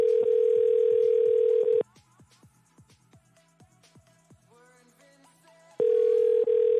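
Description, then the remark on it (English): A loud, steady telephone dial tone drones for about two seconds as a call fails to connect, cuts off to quieter clicks and faint tones, then returns just as loud at the end. No voices. “Is there a phone not working now?”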